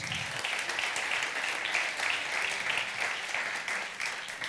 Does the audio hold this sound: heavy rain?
no